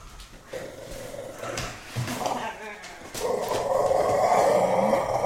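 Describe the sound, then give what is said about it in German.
A dog growls, low and rough, with a few short whimpers early on before the growl swells into a steady, louder rumble toward the end. “Der, der knurrende Abschluss.”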